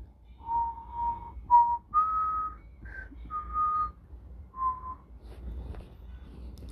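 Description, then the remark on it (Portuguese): A person whistles a short melodic tune imitating a wolf character's whistle, several clear sustained notes stepping up and down with brief pauses, moderately loud over a low background rumble. “Ainda mais o assobiozinho.”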